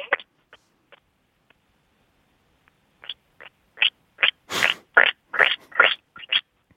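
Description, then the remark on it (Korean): A voice imitates a frog, croaking in a quick run of short, clipped pulses that start sparse, then speed up into a dense, loud burst before stopping. “자, 개구리와 염소 소리 가겠습니다.”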